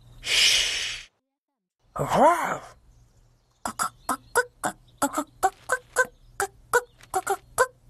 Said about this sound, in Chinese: 只是母鸡嘛。母鸡为什么坐在蛋上面？ 它生了蛋，现在要保持鸡蛋温暖，等鸡宝宝孵化，然后出来。